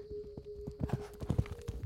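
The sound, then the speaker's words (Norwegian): Horse hooves clip-clop in a quick, steady rhythm as a farmer rides his horse to a hill mound on Stord, a string of crisp knocks over a faint sustained hum, with no talking. “Synet av rikdommen i haugen lokket han, og en dag tok han hesten sin og rei til haugen.”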